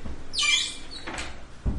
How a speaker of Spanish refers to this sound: Cerré la puerta, ¿viste?